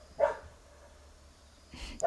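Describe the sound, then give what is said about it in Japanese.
A dog lets out two short, whiny barks about a second and a half apart, fairly soft, with quiet background in between and no voices. “犬も泣いてるし今日はここでそれではまたね”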